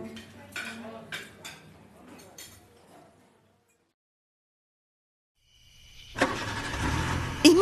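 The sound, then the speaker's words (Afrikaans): A few light clinks and rustles, then a pause of near silence before a loud, broad rush of car noise swells in and carries on to the end, like a vehicle driving. “Kom ons ry.”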